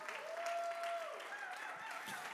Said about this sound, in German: Komm auch nochmal ein, ein Applaus zur Ehre Jesu für den Standort in Ansbach.